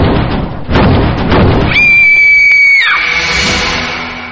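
A woman screams, one loud, piercing, sustained shriek lasting about a second that drops off at the end, preceded by dull rumbling thuds and followed by a fading noisy wash.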